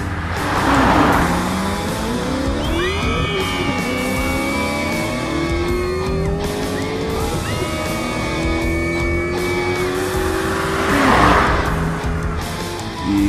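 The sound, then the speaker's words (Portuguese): A car roars by at speed on a road at night, its engine whining in rising sweeps while tires squeal and screech, with rushing bursts of noise at the start and end as it races past. “Bom, como todo jovem, assim que tirei minha licença para dirigir, eu peguei o hábito de toda sexta-feira à noite pegar o carro e sair sem rumo pelas estradas da minha cidade, às vezes acompanhado e às vezes sozinho.”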